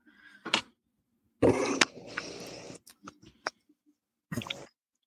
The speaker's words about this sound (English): excuse me, I need to get a, a little drink of water. Yeah, no problem.